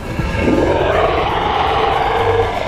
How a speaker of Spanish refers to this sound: Eso hizo que el titán explotara en cólera. Emitió un rugido que hizo que vibrara el suelo.